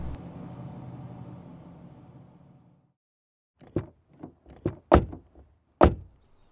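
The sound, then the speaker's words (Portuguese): A low engine-like rumble fades out, then after a pause comes a quick series of sharp thuds and clunks as three people get out of a car, its doors opening and slamming shut. “Os três desceram do carro e começaram a andar.”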